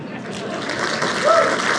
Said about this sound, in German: Ja, Sie haben ja schon mal geklatscht, reicht.